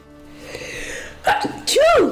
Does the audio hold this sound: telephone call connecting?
no